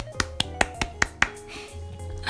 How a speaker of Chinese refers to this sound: 此处要给自己拍拍手。